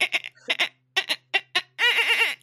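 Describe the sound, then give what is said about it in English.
A voice imitates dolphin noises: a run of quick, high-pitched clicky chirps followed by a sustained warbling squeal that wobbles up and down, loud. “That's, that, that's my that's, that's my dolphin noise.”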